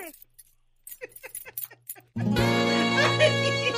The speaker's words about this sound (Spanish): pero es que con tantas llaves no sé cuál es la de la bodeguita.